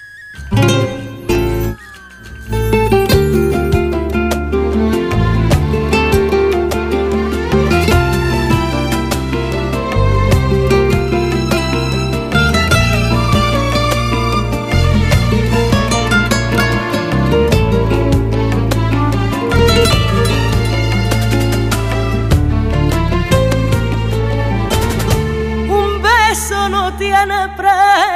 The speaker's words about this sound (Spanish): vamos a escuchar de nuevo una sevillana, en esta ocasión es …, y la sevillana es …